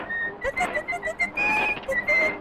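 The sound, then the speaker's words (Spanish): Mickey Mouse whistles a bouncy, jaunty tune in short repeated phrases while steering a boat in the first Disney cartoon short, bright, over a busy musical backing with no talking. “Él va silbando, de hecho.”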